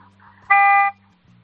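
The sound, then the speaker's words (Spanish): The horn of an old car from the year 2000, about 21 years old, gives a single sustained honk of about half a second, loud, with a steady harmonic buzz over a low engine-like hum. “vamos a darle mm, un toquecillo largo. bien, que es muy viejo, vamos a ver cómo suena.”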